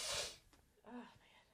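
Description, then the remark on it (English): A single sharp sneeze bursts out loudly, followed by a brief voiced murmur and quieter breathy noise as it fades. “Everybody tweet, bless you”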